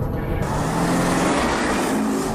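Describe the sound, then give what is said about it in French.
A car engine hums steadily with a broad, continuous rumble, heard from inside the car as the vehicle drives along. There is no talking, just the even drone of the motor and road noise. “C'est parti On est en voiture, on parle de business, d'immobilier, d'entrepreneuriat, de management, de mindset.”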